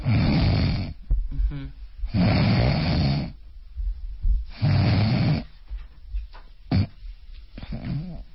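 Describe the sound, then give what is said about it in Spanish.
A voice imitates loud, rasping snores in three long bursts, separated by stretches of near silence like breathing pauses, with a few short snorts and gasps in between, imitating a snorer with sleep apnea who stops breathing during the pauses. “oiga, pero aparte de que ronca, como que se queda sin respirar, ah, sí, doctor, también como que yo siento que lo tengo que mover porque siento que no está respirando.”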